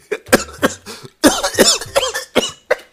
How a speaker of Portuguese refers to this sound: A nossa tosse. É. Eu, é, sabe que essa tosse me lembrou uma coisa que a gente tem que fazer, que é fumar um cigarrinho.